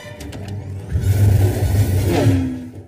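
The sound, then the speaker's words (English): A futuristic hover-bike engine roars loud, a deep whirring rumble swelling after a brief lead-in, with a pitch that sweeps down as the floating motorcycle-like speeder bikes rush past. “It was like a motorcycle, but it was like a floating motorcycle.”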